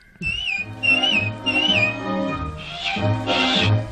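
A bright, melodic whistle carries a short tune in a few gliding phrases over a soft orchestral backing, close and clear, with a brief swelling chord near the end.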